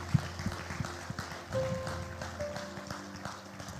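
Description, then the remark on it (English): A church audience claps for Jesus during a morning service, a steady, dense patter of many hands, with a faint sustained keyboard note ringing underneath. “Can we give Jesus a clap this morning?”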